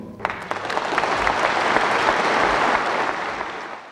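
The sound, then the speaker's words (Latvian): Loud, sustained applause from a large audience at the founding congress of the Popular Front of Latvia, a dense wash of many hands clapping that swells quickly and holds steady with no voices standing out. “Un skanot šiem aplausiem, Jānis Peters, Tautas fronts dibināšanas kongresā, ja tā var teikt, izspēlē arī savu vienpersonisko trumpi”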